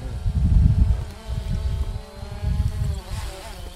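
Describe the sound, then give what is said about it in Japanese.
A returning drone, about to be caught by hand, gives a steady, high-pitched buzzing whine, with stacked motor tones that waver and shift in pitch as it moves, fairly loud throughout with a low rumbling underneath and no talking. “帰ってきたドローンあドローンも帰ってきましたで今旧館長くんも帰ってきましたよおかえりじゃあ戻ってきたついでに旧館長さんあの帰ってきたドローンキャッチしてください”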